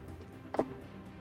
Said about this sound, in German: Okay, ja, dann kann ich jetzt ja nochmal mit zwei W6 würfeln.